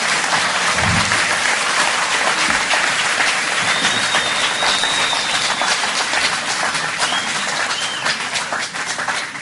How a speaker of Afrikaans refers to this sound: Dames en here, gee vir Danna 'n lekker hande klap.